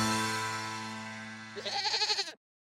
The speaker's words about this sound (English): Hey, look, what's that? It's a five legged goat.